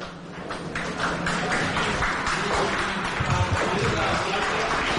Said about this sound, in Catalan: Així és, eh, Xavier García Viola en aquest moment entrant en la sala de plens rebent els aplaudiments eh, dels assistents